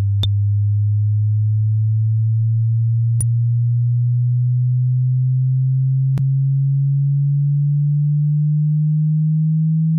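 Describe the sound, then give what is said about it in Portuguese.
A steady pure sine tone starts low and glides slowly upward in frequency over about ten seconds, loud and alone, with a few faint clicks along the way. “ele vai se tornando cada vez mais agudo. Então é, a gente está aumentando a frequência dele.”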